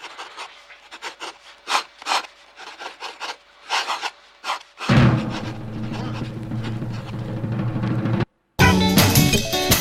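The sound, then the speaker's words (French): A pencil scratches across paper in a series of irregular, raspy strokes for about five seconds as a short introduction to a musical piece, then a dense, repetitive musical texture with dolphins heard from afar takes over and continues to the end. “Une toute petite introduction avec un crayon.”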